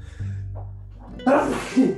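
A single loud sneeze bursts out abruptly after a quiet stretch with a low background hum, trailing off into a brief breathy tail.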